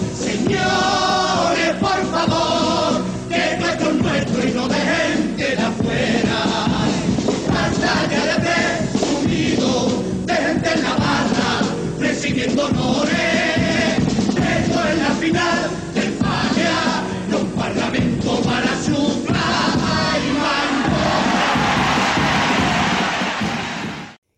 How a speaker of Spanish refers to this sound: increíble aplauso del público en este magnífico paso doble que recordemos se cantó en el año 94